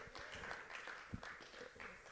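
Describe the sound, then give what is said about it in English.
Sparse, faint clapping from an audience during a sermon, after being asked who is grateful for the grace of God, a scattering of soft hand claps that never builds into full applause and stays thin and quiet throughout. “That was a weak clap.”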